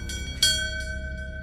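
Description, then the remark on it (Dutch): A bell is struck once, loud, its clear metallic tone ringing on and slowly fading over a low background rumble, with fainter clangs around it; it is the bell pulled by commando trainees to quit selection. “Wie aan de bel trekt, gooit daarmee zijn toekomst als commando weg.”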